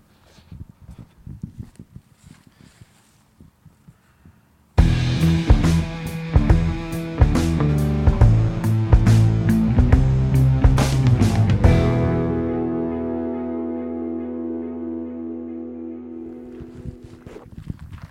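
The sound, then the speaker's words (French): A tractor engine suddenly roars in after a few quiet seconds, loud and rumbling with rattling clatter, then gradually eases off as it moves on. No one speaks. “On continue T'as un tracteur qui va”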